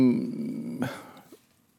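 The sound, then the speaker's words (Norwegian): Heavy breathing: a low, voiced groan-like exhale gives way to a sudden breathy rush of air that trails off into near silence. “Ja, du pustet tungt.”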